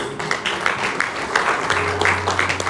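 An audience, on their feet in the morning, applauds God together, a dense, steady wash of many hands clapping with no pauses, joined partway through by a low sustained hum underneath.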